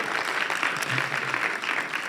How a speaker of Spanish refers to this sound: ¿Le damos un aplauso al equipo de música? Por favor, un aplauso más grande.